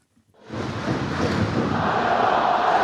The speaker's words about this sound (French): Voilà longtemps hein, qu'on n'avait plus entendu le moustoir exulter au coup de sifflet final après une victoire à la maison.